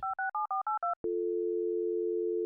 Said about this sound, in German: Los, ran an die Telefone. Wir klingeln alle durch.